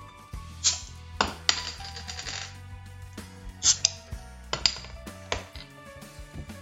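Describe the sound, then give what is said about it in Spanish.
A bottle of stout beer with 6% alcohol being opened: a run of sharp glassy and metallic clinks and taps with ringing tones, several quick knocks spread over a few seconds, with no talking. “Pues ¿qué te parece si la destapamos?”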